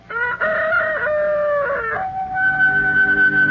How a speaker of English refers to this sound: Still, whatever doubts and fears he may have taken to bed with him, they are all dispelled by a glorious sunrise that wakes him up with cockcrow.